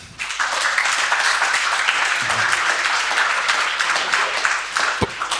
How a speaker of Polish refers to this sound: Przyjechał do nas pan, pan Paul Thibault, proszę go przywitać oklaskami.